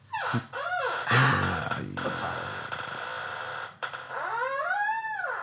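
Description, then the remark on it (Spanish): A chair creaks and squeaks in a few drawn-out, wavering whines, with a loud bump in the middle and a steady low hum underneath; no one speaks. “Pon el aceite a la silla esa de No da, no es para tanto. Mirá, fíjate.”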